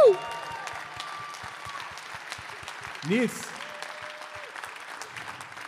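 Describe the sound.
Dense, steady applause from a crowd fills the whole stretch, with a short rising whoop of cheering partway through and a voice speaking briefly over the clapping.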